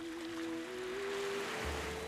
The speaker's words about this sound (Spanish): pues con los ojos cerrados lo detectamos perfectamente, ¿no? El sonido, el sonido del mar.